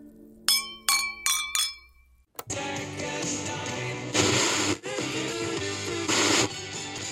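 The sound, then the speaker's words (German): Four bright glass clinks of glasses in a toast ring out in quick succession, each leaving a short shimmering ring, before a loud, dense wash of sound abruptly takes over. “Ein Grund zum Anstoßen ist heute sicherlich dabei.”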